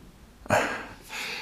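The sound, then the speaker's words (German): A dog growls softly in its sleep while dreaming, two short breathy rumbles, the first stronger, the second fainter and drawn out, with no talking. “Jetzt knurrt er im Schlaf.”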